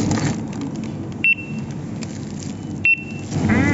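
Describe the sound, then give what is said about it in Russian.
Two short, bright electronic beeps from a checkout barcode scanner, spaced about a second and a half apart, cutting through a steady hum of store background noise. “Давай, пикай.”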